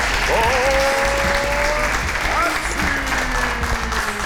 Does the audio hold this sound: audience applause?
yes